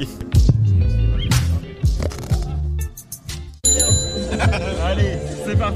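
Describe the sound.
A bicycle bell rings with bright, metallic dings, its clear tones repeating and lingering over a busy background where voices and laughter mingle close by.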